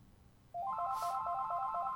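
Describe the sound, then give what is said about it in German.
A landline phone base station rings even though the phone was set to silent, a rapid, repeating electronic trill of stepped tones, starting abruptly and continuing steadily, fairly loud, over a low background hum. “das ist geil, ich mach mein Telefon leise und die Station klingelt.”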